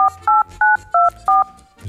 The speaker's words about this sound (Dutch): Eens even kijken. Even het nummer intoetsen.